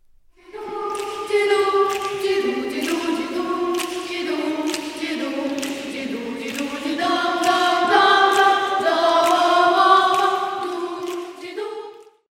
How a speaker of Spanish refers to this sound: El coro de la catedral es conocido. Suena así.